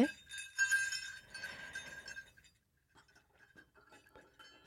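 A small bell is shaken, giving a bright, high, metallic jingle for a couple of seconds before fading into a few faint scattered clinks.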